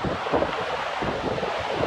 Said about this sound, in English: He's calm in the middle of the storm. It's pitch black outside, raining, and the wind's howling. Wow.